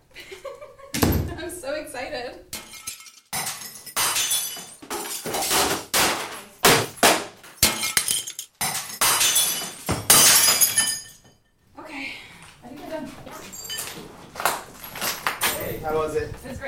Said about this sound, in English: We have vases, all types of glass. We have some electronics, printers, keyboards, desktops that all have been cleaned and are safe to break.